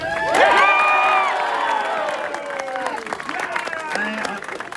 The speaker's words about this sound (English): You can take a break from the applause. You deserve it.